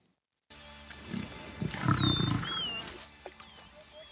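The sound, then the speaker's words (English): A young male lion, alone and surrounded by hyenas, lets out a deep, rumbling roar that swells and fades over a couple of seconds. The roar is fairly loud, with thin bird-like chirps and outdoor ambience behind it. “It's about a lion who's alone, and the hyenas surround him.”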